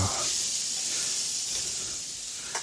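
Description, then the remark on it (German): Food browns in a pan on the residual heat after the heat has been switched off, sizzling softly but steadily: a continuous hiss with faint crackles and a small pop near the end, with no talking. “Jetzt kann es hier noch in der Resthitze der Pfanne ein bisschen bräunen.”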